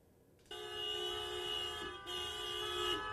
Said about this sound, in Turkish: Kornalar susmadı, tepki büyüktü çünkü %25'lik zamma dakikalar kala Osman Gazi Köprüsü'nde geçişler durduruldu.